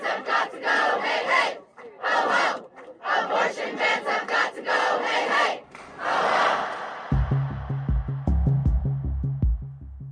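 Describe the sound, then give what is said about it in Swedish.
A crowd of protesters chants in loud, rhythmic bursts outside the US Supreme Court in Washington DC, protesting over abortion rights, voices rising together in repeated slogans, before the chanting gives way to a steady pulsing beat near the end. “Ja, så där lät det i Washington DC häromkvällen när demonstranter protesterade utanför högsta domstolen i USA.”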